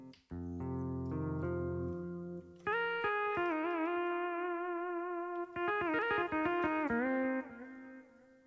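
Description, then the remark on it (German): Steel-string acoustic guitars ring out with echo, starting with a low sustained chord, then long singing notes and a run of quick plucked attacks near the end. No one speaks. “Jetzt kommen wieder Akustikgitarren, ne? Stahlseiten.”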